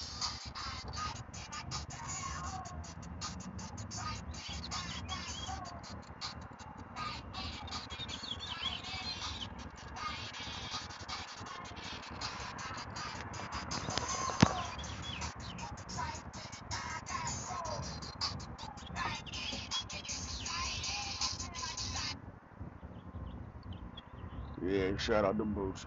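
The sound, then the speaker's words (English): Birds chirp outdoors amid a steady wash of busy ambient noise, their calls light and scattered rather than prominent, with indistinct voices and rustling mixed in throughout. “Birds chirping.”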